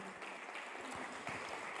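A crowd claps steadily as applause to the Lord, a dense wash of overlapping hand claps with a few sharper individual claps standing out, sustained at an even moderate level throughout.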